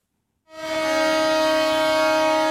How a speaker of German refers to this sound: Eine lange Kolonne aus Traktoren und Pickups fährt hupend durch die Stadt Volos in Zentralgriechenland. Viele mit Griechenland und manche mit Piratenflaggen auf den Fahrzeugen, ein Zeichen für ihren Kampfeswillen.